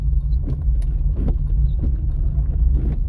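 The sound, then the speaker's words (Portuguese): A steady low mechanical hum of a car power window motor running, with rough scraping clicks from the window roller repeating roughly every half second as the glass moves. Fairly loud, with no talking. “Ó, se liga aqui o barulho da, da do rodinho de vidro.”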